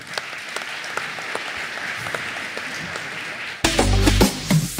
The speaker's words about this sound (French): Applaudissements pour Monsieur le maire.